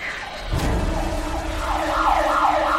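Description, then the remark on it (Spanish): A police car siren wails and sweeps up and down over a low engine rumble, growing gradually louder as the patrol car approaches at full speed. No one speaks. “Es una patrulla. Se acerca a toda velocidad.”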